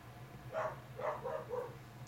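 A dog barks about four times in quick, uneven succession, muffled, over a steady low hum with no one speaking.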